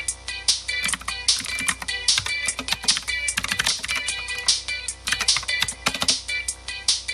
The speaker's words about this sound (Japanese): キー キーボードの音好きな人いるんですね。